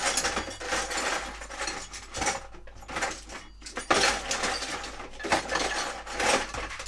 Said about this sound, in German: Bohrmaschine, die Bohrmaschine, ausgezeichnet. Die Bohrmaschine, da kommt der Stift rein, da kommt der Stift rein, der Bohrstift und dann kann man Löcher bohren. Löcher bohren.